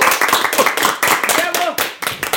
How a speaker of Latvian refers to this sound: Aplausi!